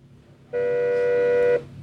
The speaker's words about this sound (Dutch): Ja, hier zit ook nog het Designmuseum, oh Provinciaal Depot het Noord-Brabants Museum. Maar dit is de bel van het erfgoed.